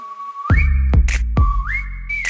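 A clear, high whistled melody slides upward and holds a sustained note, repeating the phrase twice over heavy bass and sharp, punchy drum hits in a pop track, with no singing.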